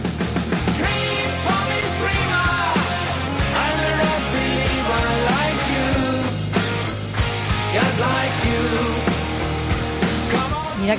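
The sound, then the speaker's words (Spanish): A hard rock song, the second single of a German band's 19th album released in February 2022, plays loud and dense throughout, with heavy guitars, a steady driving bass and drums, and a strained, belting lead vocal riding on top. “precisamente tal y como se llama su segundo single que suena así.”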